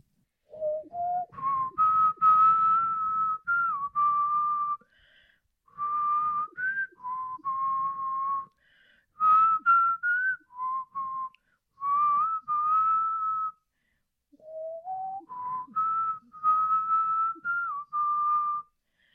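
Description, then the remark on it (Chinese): A person whistles a song melody alone, in clear, fairly loud phrases of steady mid-high notes with small upward slides, broken by brief pauses over about twenty seconds. “那口哨歌，唉，因为我真的想不到，只好来一个很。”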